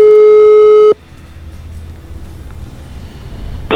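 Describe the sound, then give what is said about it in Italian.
A steady electronic ringing tone of an outgoing phone call, recorded the day before, buzzes loudly for about a second, then a stretch of quiet line hiss, before the next ring begins at the end. Nobody speaks. “l'abbiamo chiamato chiaramente ieri come sentite negli squilli che sono rimasti nella registrazione.”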